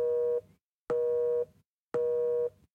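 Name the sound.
telephone busy tone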